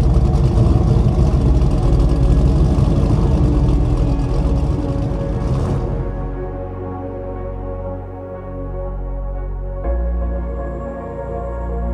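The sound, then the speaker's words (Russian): A car engine starts with a rough, noisy roaring burst, then settles into a steady low rumble that shifts up slightly near the end as the car drives off. It is loud, with no voices. “А пока продолжим, вновь заведем мотор и поедем дальше.”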